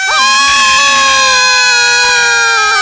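A loud, sustained shout on an open 'ah' vowel, fairly high-pitched, shouted hard from the belly as a cry of freedom after a count to three, held steadily for nearly three seconds and unbroken, with no other talking.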